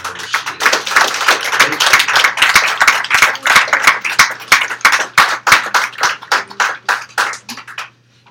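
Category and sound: crowd, audience clapping and applause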